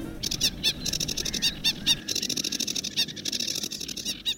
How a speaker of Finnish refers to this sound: Tämä on Ruokokerttunen.